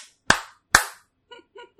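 Two sharp, crisp hand claps about half a second apart, each loud and percussive with a quick decay, followed by a faint brief vocal sound.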